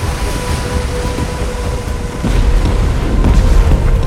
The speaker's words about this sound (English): Greyhound, Dickey, I'm launching depth charges now.